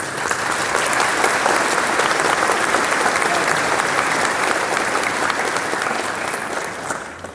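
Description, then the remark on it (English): An audience claps steadily for about seven seconds, a dense, even roar of applause that holds its level before tapering off at the end. “And let's get around the applause.”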